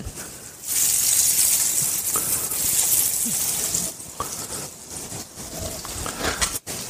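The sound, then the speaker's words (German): Schnitzel sizzle steadily, swimming in hot fat in a pan over high heat, a loud, continuous hiss with fine crackles and pops, with no talking, briefly dipping near the end. “So, die müssen jetzt im Fett schwimmen.”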